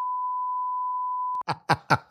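censorship bleep tone

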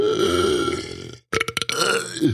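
burp

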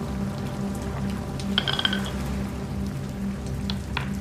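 rain falling

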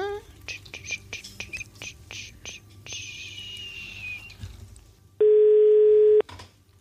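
telephone ringing tone

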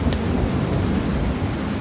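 loud thunderclap

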